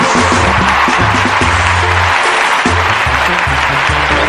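Loud, sustained audience applause welcoming a regional Mexican music performer at the Viva México concert celebrating the Battle of Puebla, a dense wash of clapping throughout, with music playing underneath and a bouncing low bass line showing through the noise.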